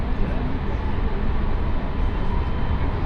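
A steady, loud rumble of a moving JR West Tokaido Main Line Special Rapid commuter train bound for Himeji, between Kusatsu and Shin-Osaka, heard from inside the carriage, with constant low roar and rattling running throughout and no speech.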